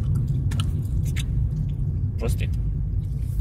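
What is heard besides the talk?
chewing peanuts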